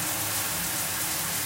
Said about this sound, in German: Aber wie gesagt, jetzt erstmal schön duschen. Mit der, ja, oh, oh, kalt. Kalt.